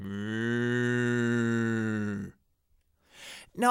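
An ox gives one long, loud, drawn-out moo, lasting about two seconds before cutting off into silence, followed by a brief breathy noise at the end.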